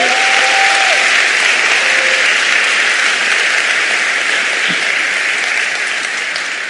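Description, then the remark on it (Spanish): An audience at an afternoon gathering gives applause to God, a dense, even wash of many hands clapping for several seconds with no voices over it, fading only slightly toward the end. “Dios ha señalado este año para hacer cosas lindas en tu vida y en la vida de esta casa y para mí es un honor estar aquí y quiero saber cuántos agradecidos le pueden dar un aplauso a Dios en esta tarde.”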